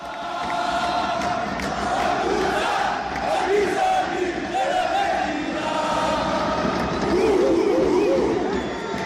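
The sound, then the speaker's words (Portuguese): A large crowd of Beitar football fans at TED Stadium in Israel chants together in a loud, sustained roar, voices rising and falling in rhythmic unison over a dense wash of crowd noise for the whole stretch. “Aqui está a torcida mais racista de todo o país. É o que cantam os torcedores do Beitar.”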